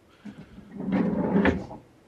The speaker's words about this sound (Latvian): Atvilkne aiztaisījās.